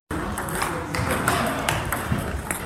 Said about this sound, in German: So klingt es, wenn an 16 Platten gleichzeitig die Tischtennisbälle fliegen. In der Sporthalle Dietenhofen im Landkreis Ansbach messen sich heute 50 Teilnehmer und Teilnehmerinnen beim inklusiven Tischtennisturnier.